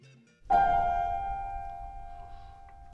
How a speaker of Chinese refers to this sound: 叮咚！尖叫门铃喊道：“啊，怎么回事？是谁？我在哪儿？”